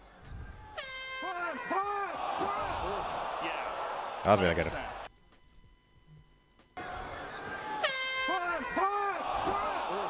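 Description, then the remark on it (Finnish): Loud air horns blare repeatedly in overlapping, wavering blasts over a noisy crowd, a man speaking over them; the sound cuts out briefly, then the horns resume just as loud. “se torvia.”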